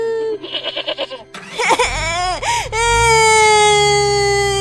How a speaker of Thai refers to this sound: โอ้โอ้โอ้อย่าร้อง อย่าร้องนั่นร้องทั้งคนทั้งแพะเลยทีนี้